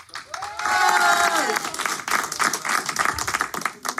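An audience breaks into steady, dense applause lasting several seconds, with a few voices calling out or cheering over the clapping near the start before it settles into a fluttering patter.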